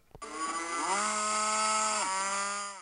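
A Thai gaur (wild cattle) gives a lowing call, one long loud bellow that swells in pitch early on, holds steady for a couple of seconds, then drops at the end. It is heard alone.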